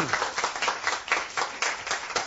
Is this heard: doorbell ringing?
no